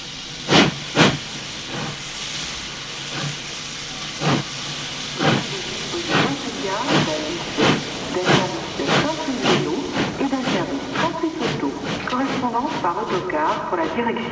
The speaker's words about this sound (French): Enfin, le train arrive en gare de Moutier.